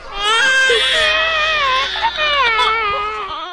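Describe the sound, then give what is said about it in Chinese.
Young children, about one to three years old, wailing and crying loudly and continuously in a clinic as they resist injections, high-pitched overlapping sobs that rise and fall for several seconds with no clear words. “还有一次呢，大壮媳妇儿去诊所打点滴，里面孩子各种哭啊。”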